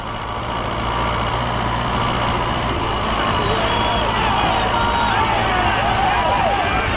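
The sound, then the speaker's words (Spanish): A tractor engine idles with a steady low rumble for the whole stretch, while indistinct voices murmur in the background. “Entre todos los presentes apuntalaron la vieja capilla, la amarraron a un tractor y se la llevaron loma arriba y loma abajo hasta Astillero.”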